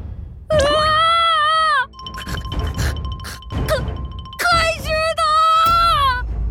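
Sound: screams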